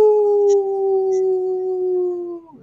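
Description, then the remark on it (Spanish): A person lets out a single long, steady wolf-like howl, holding one sustained tone for over two seconds before it trails off and drops away at the end. “Bueno, señor, retrocede que ya estamos cerrando de Blue Wolf. ¡Aú!”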